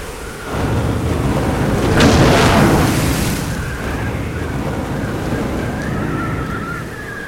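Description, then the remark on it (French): A ship, its bow stuck in a sandbank and its keel wedged on coral, is lifted by a huge wave and falls back onto a reef amid heavy waves: a deep, continuous rumble of surf with one loud, splashing crash surging up near the middle, then churning water that rolls on. No voices. “Une lame terrible soulève le navire qui retombe sur un récif avec un bruit sinistre.”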